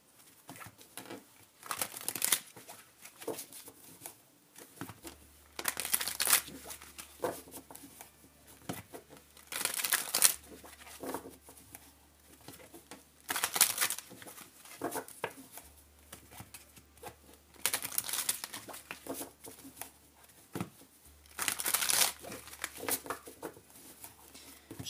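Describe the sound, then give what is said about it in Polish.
A tarot card deck being shuffled and cut, with about six crisp, papery bursts of riffling and slapping, separated by brief quieter pauses. No one speaks. “przekładam.”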